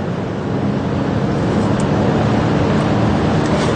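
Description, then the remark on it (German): A powerful electric car with 487 PS, 68 Nm maximum torque and a weight of 2.3 tonnes accelerating with the pedal pressed hard, heard as a loud, steady rush of road and wind noise that fills the whole stretch without pause, with no voices over it. “Wenn man hier gescheit aufs Gas steigt, geht natürlich was vorwärts, aber man darf sich jetzt auch nicht zu viel erwarten.”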